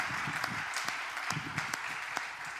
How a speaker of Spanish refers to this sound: Queremos darles un aplauso también, iglesia, a toda nuestra iglesia online. Venga.